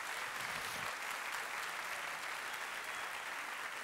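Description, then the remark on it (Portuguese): A crowd at a religious gathering applauds the love of God, a dense, even wash of many hands clapping at once that holds at the same level throughout without fading or breaking into individual claps. “Se você crê nesse amor, aplauda o amor de Deus por cada um de nós.”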